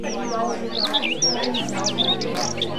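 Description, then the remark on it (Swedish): Several birds chirp and twitter in quick, overlapping bursts of high whistles, with a murmur of voices and a low steady hum running underneath. “Fåglar, musik och röster.”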